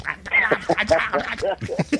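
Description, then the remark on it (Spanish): A person dressed as Goofy does a raspy, garbled impression of Donald Duck's voice, a continuous stream of squawky quacking syllables lasting about two seconds. “Quita el pato Donald, Vestido de tribilín.”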